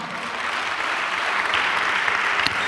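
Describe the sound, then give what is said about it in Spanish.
Steady applause from a church audience clapping for Christ, a dense wash of many hands clapping at a constant level for a few seconds, with a faint murmur of voices underneath. “Dele un aplauso a Cristo, amado hermano.”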